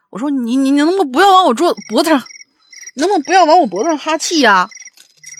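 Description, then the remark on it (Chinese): A phone alarm, set as a breakfast reminder, sounds high, rhythmic cricket-like chirps that repeat steadily in short bursts throughout, sitting quietly beneath a person talking animatedly. “这怎么后面还有蛐蛐叫呢？”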